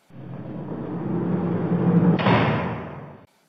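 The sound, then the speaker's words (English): A door at an animal shelter is pushed shut over about three seconds, a low rumbling slide that builds to a slightly brighter scrape near the end before stopping, with no voices. “She closed the door.”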